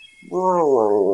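A single drawn-out stomach growl, a fairly loud groaning rumble that swells in quickly and holds for about a second, with no talking over it.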